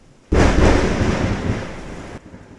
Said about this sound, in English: I think God got angry at me for asking that. Did you hear that thunderclap? Lightning and the thunder.